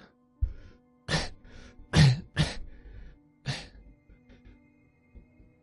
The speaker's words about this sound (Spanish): Pero justo cuando cierras esa petaca y los pulsas, esas manos se diluyen y escuchas al niño toser.